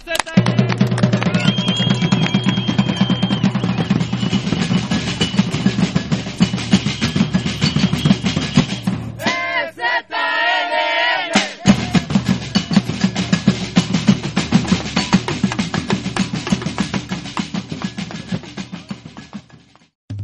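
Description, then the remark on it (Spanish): Loud, sustained crowd applause for the support bases at the inauguration of a gathering in Oventic, with dense clapping throughout, briefly broken around the middle by a rising and falling whistle or cheering shout before the clapping resumes and slowly fades. “Un aplauso para las bases de apoyo del”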